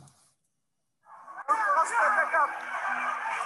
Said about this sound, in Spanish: Si no está saliendo el sonido, les cuento que hay gente gritando.